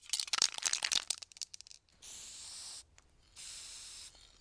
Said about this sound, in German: Also her mit der Farbe. Machen wir mal einen roten Punkt auf die Eiche.